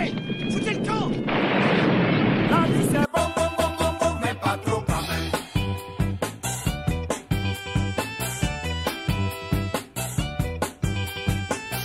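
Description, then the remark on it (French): A loud, roaring explosion fills the first three seconds with dense rumbling noise and faint whistling tones, then cuts off abruptly as rhythmic music with a steady beat begins. “Faites gaffe Tout va exploser”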